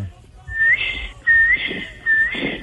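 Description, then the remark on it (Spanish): A person whistles three times in a steady rhythm, imitating the song a male huevimorado (güey mora) bird makes at night: each phrase is a short rising note that slides into a sustained, bright tone. “Ese es como el canto, como el... el... canto que hace por la noche.”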